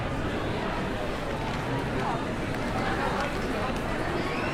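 A steady wash of crowd chatter from many tourists, shoppers and families at Covent Garden, London, at Christmas, overlapping voices blending into a continuous babble with no single speaker standing out, holding an even loudness throughout.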